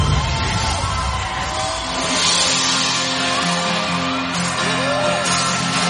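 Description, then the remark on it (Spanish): A person shouts loudly amid a dense, noisy crowd, with other raised voices and a steady tonal hum running underneath for several seconds. “Está gritando, ya sé que nos entera.”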